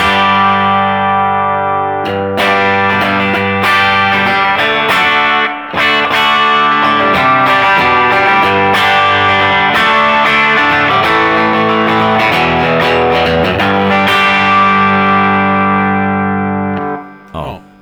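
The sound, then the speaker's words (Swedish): A distorted electric guitar, played through an amp modeler set to a 112 Deluxe amp model with extra distortion, plays loud chords with sharp strummed attacks and sustained, crunchy ringing for about fifteen seconds, then lets the final chord fade out. “Nu har jag nu ställer jag tillbaka den till eh, 112 eh, deluxe. Okej, okay. med lite mer dist då?”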